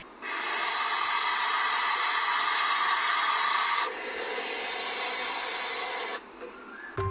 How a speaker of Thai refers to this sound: เสียงลูกนกแสกเสียงจะแหบๆ เหมือนเสียงขู่คำรามค่ะ ฟังแล้วนึกถึงเด็กๆเลยนะคะ ที่ตะโกนร้องหาแม่มาก ร้องจนเสียงแหบไปเลยค่ะ